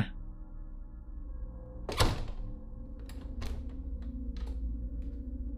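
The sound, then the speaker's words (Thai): A door closes with a single solid thud as a man shuts a room door at the back of a shop, followed by a few faint clicks and taps against a steady low background hum. “หลังจากพูดจบ เขาก็เดินหายไปทางหลังร้านก่อนจะปิดประตูห้อง”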